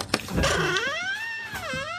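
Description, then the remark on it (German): A treasure chest lid, unlocked with a key, creaks open in one long, drawn-out groan whose pitch slides and wavers, dipping and rising again over about two seconds, fairly loud with no voices. “Mit einem Knarzen öffnet sich die Truhe und offenbart 1000 Goldstücke.”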